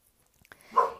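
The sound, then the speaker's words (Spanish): A dog lets out a single sharp, loud bark after a moment of faint background clicks and near-silence. “perdón, alerta de perro.”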